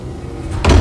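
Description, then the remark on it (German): A door swings shut with a single heavy, low thud that arrives abruptly after a moment of quiet background rumble, then rings out briefly. No one speaks. “Welche Tür war das?”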